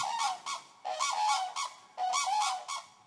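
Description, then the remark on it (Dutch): Common cranes call in loud, trumpeting bursts, three rolling volleys of bugling notes in quick succession, clear with no voices over them. “Bij de vogelkijkhut, bij het Vogeloorveen, kun je de kraanvogels zien.”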